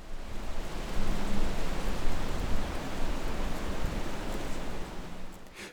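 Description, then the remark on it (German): Steady, dense rushing of wind through copper beech foliage, a continuous leafy roar with a heavy low rumble and softer highs, fairly loud and unbroken throughout, with no voices. “Das Rauschen der Rotbuche hat einen kräftigen Bass und ist in den hohen Frequenzen etwas schwächer.”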